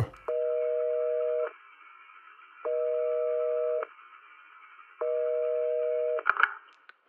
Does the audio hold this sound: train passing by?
no